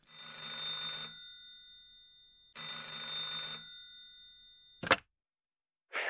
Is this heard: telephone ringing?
yes